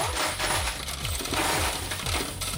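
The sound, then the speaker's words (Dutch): A rapid stream of metallic coins clinks and rattles as won coins are dropped back into a machine, a steady cascade of bright jingling impacts with no voices present. “Dat zijn er 14, maar ik ga even de muntjes teruggooien, anders heb ik te weinig straks.”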